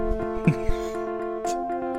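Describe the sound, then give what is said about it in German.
A steady electronic beeping jingle of layered, sustained tones playing Morse code, with a few soft knocks and clicks on top and no voices. “Das Gedudel ist Morsecode und Morse don't panic.”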